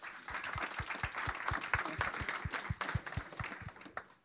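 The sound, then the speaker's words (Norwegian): Loud audience applause: a dense wash of clapping hands over a steady, rhythmic pulse of low thumps, continuing for several seconds and then tapering off. No one speaks. “Applaus!”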